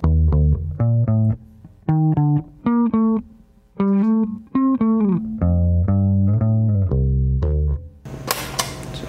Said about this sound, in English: So that lick without the bass synth would sound like this.